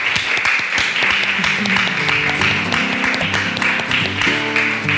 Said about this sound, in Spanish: Y un aplauso